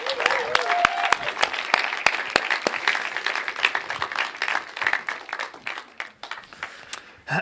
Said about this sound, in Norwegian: Gi han en varm applaus, og så får vi han opp.